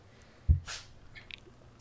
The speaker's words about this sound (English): Okay. So, oh, bless you,